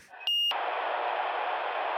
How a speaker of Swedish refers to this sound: Nu, nu ringer Paulinas morsa.